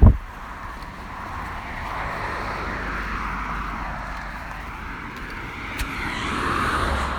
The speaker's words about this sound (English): Tractor!